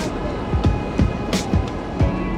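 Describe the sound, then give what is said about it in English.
A steady, rumbling roar with rhythmic metallic clacks roughly every half second as the elevated 5 train rattles past overhead over rail joints, above the Hope Line storefront, 30 minutes from Midtown Manhattan. “The Hope Line is run out of a storefront, right underneath the 5 train, which rattles past every few minutes.”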